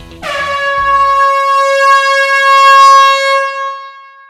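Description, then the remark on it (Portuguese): A single loud, sustained air horn blast holds a steady bright tone for about four seconds before tapering off, alone with no voices over it. “E pode falar a buzina que esse episódio já está começando.”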